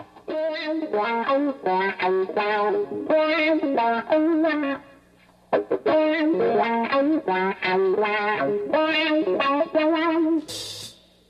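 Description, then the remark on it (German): A heavily effected electric guitar, played through wah-wah pedals, extremely strong distortion, psychedelic spring reverb and echo effects, plays choppy, rhythmic chord stabs with a thick, distorted, swirling tone, pausing briefly midway before resuming and ending on a noisy burst. “Das Ergebnis sind Wah-Wah-Pedale, extrem starke Verzerrer und psychedelisch wirkende Hallspiralen sowie Echoeffekte.”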